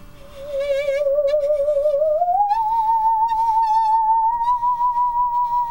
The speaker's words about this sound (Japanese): 私今のこぎり演奏家ということでねご紹介をさせていただいたんですけれども、はい、のこぎりを使った音楽ということでお間違いないですかそうですね はい少しだけ音がどんなものなのか聞かせてもらってもいいですか